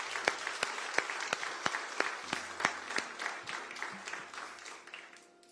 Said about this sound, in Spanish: Denle el aplauso, claro. Porque Él es el único que sana. Fuerte, fuerte.